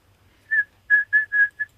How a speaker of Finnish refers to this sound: semmoinen terävä, mutta oikein sympaattinen, kun se, se e, piiperi siellä tunturissa kulje. Tota. Silloin vähän sellainen haikea ääni. On, Kyllähän mutta... sen aika nopeasti oppii tietämään, että nyt on kyseessä kapustarinta.